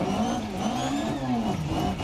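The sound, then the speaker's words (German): A rally car engine in a video game drones steadily at mid pitch, its tone rising and dipping slightly as it revs, loud throughout with no voices over it. “Also Motor ist ja alles gut und so, ne?”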